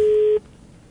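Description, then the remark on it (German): A single loud, steady telephone tone rings out for about a third of a second, a busy-signal beep that cuts off abruptly, leaving quiet line hiss. “Ich glaube, jetzt geht echt einer dran. Jetzt ist echt soweit.”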